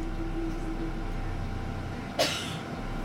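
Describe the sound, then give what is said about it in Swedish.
Steady low engine rumble and droning hum from inside a moving city bus, with one short sharp burst of a woman coughing partway through and no talking. “När bussen kommer kliver hon på, så Krister gör detsamma.”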